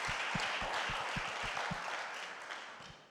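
A crowd bursts into sustained applause, a dense wash of many hands clapping at steady volume, with a few sharper individual claps standing out before it gradually thins toward the end.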